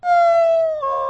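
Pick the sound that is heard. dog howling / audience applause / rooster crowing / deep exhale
dog howling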